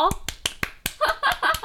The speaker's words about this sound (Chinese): 那第二件事情呢，就是我们 YouTube 频道终于破一百万哦，不是，终于破一百个订阅了，拍拍手。